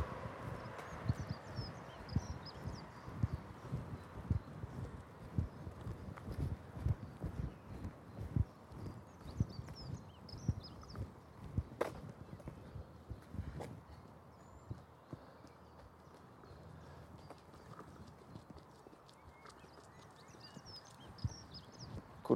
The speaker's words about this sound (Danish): Der kom lige en ung kvinde løbende forbi med langt lyst hår i en hestehale.